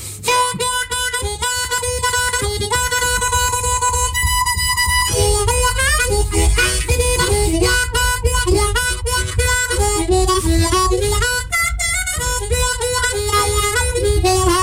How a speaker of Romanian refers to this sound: care este fraza ta muzicală preferată la muzicuță?